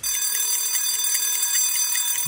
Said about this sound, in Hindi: red F M का hand wash alarm care करो ना अगले 20 सेकेंड हाथ धोना